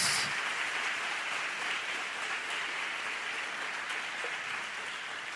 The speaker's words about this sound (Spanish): ¿Por qué no damos un fuerte aplauso a Jesús?